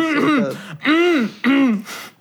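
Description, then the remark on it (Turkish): Someone clears their throat three times in quick succession, each a short, voiced, rasping burst, fairly loud with brief pauses between them and no talking. “Yok ya valla boğazıma bir.”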